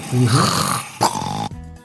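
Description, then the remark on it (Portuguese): A person imitates a loud snore with their voice, a rough, throaty rasp lasting about a second, followed by a short snort and a sudden cutoff into quiet, mimicking someone with sleep apnea snoring. “Começa a roncar. A pessoa tá lá. De repente ela ronca.”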